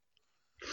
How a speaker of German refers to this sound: Das war ja. ein sympathisches, äh, äh ein, ein Sympathieniesen. Genau.